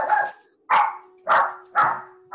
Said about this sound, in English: that Doberman's going crazy right now. Absolutely the, making the typical noises of a Doberman.